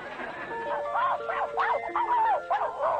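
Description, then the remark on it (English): A puppy yips and whimpers in a quick string of high, squeaky cries, about six short bursts in three seconds, fairly loud, with no talking over them. “But he's just a puppy.”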